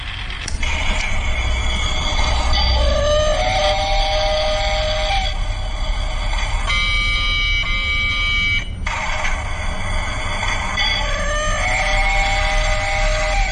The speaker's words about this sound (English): Well, this is the sound of some quite intriguing kinetic art pieces in action in an exhibition that is on until the end of March. That's the sound of a train that's in the title piece of The Lost Time Travel Machine,